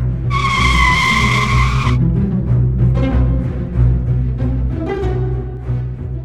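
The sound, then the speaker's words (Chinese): A moving snowmobile makes an emergency stop, braking hard with full force in a loud, high-pitched screeching skid lasting about two seconds, over a steady low engine rumble that keeps going with rough bursts of noise afterward. “欧达使出全力，紧急刹车。”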